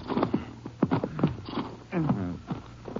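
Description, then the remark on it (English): Horses being halted by riders in the mountains shuffle with a few sharp hoof clops, then one lets out a wavering whinny; the sounds are moderately loud and fill the short stretch. “We can't go in very far in the horses. Maybe we should leave them right here.”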